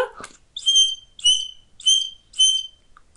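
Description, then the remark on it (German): Four short, evenly spaced whistle blasts at a steady rhythm, clear, with a brief rustle at the start: a herding whistle signal for a sheepdog at a normal tempo, for the dog to get up calmly, not blown on the usual whistle. No talking. “Ja, also so wie ich das mhm. jetzt pfeife.”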